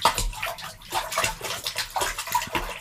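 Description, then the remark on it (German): Continuous water splashing and sloshing in a small basin, with repeated bursts as both feet move around in the shallow water, no voices. “So, ich stelle jetzt meinen anderen huh, Fuß auch noch rein. So, jetzt, ha, jetzt sind sie beide drin. Hörst du das?”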